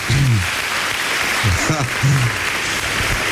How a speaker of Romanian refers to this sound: So, ce? Uh, practic uh, își uh, primește nu zeci de aplauze, ci sute, sute și...